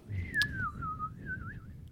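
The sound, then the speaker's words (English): A person whistles a single sustained, wavering tone that slides slightly down then wobbles back up, fairly steady for about two seconds, with a faint low rumble underneath. “Do you whistle sucking in or blowing out?”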